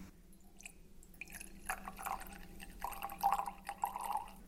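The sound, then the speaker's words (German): Unsweetened dry gin trickles and splashes into a glass, a soft uneven pour with faint clinks and drips that grows slightly louder toward the end, with no talking. “Dann würde ich sagen, probieren wir doch die ganze Geschichte mal und ich würde dann mal ein bisschen was eingießen.”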